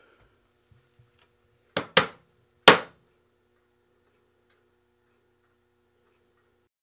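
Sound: clock ticking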